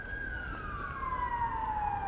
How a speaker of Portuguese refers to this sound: Ao fundo você ouve a sirene de ambulância, as equipes de resgate estão de prontidão para a eventualidade da localização de sobreviventes e eles ainda têm esperança de que haja sobreviventes.